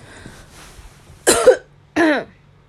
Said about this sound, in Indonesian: Batuk gak kelar-kelar. Mau nyanyi minggu depan gak bakalan bisa ini.